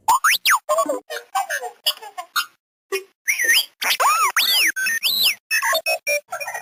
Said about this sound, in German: das charakteristische Quietschen kennt man ja vielleicht, das war R2D2 aus Star Wars